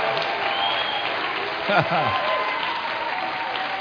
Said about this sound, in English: You know, when a person has a birthday, people celebrate. Well, you've just had a new birthday. And we just want to celebrate with you. Come on, let's give them a big hand.